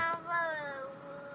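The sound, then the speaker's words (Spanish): A young girl who has just woken up in a car's back seat gives a drawn-out, whiny cry that slides downward in pitch, fussy, with no talking over it. “Se acaba de despertar mi hija en el asiento trasero.”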